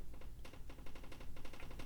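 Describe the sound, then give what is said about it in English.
Rapid, irregular clicking from a room heater, a steady patter of small sharp ticks at low volume, with no voices. “I don't know if you hear this noise. It's like a clicking sound. It's just my heater.”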